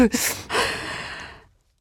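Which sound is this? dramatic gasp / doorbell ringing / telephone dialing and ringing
dramatic gasp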